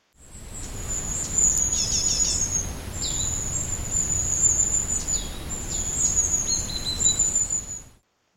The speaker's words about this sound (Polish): Na razie pocieszę się trochę deszczem, skoro pada.